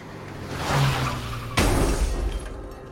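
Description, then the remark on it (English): A rumbling rush builds, then a sudden loud crash of a car impact with shattering glass breaks out, followed by a noisy, fading clatter of debris. No one speaks. “Then a week later, that entire family was killed in a car crash.”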